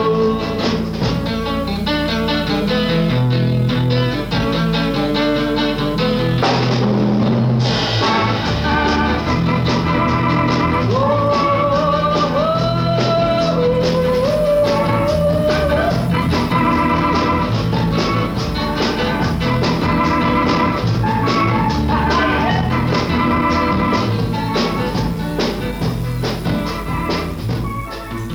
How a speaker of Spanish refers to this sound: Acabamos de oír …, un rock and roll en castellano